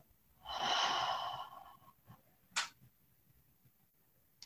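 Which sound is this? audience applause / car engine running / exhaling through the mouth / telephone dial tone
exhaling through the mouth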